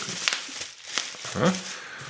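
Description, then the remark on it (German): Crinkling and crackling of bubble wrap being handled while unpacking a large parcel, coming in short irregular bursts, with a brief voiced exclamation partway through. “Knack ja oh, oh, oh, Knackfolie.”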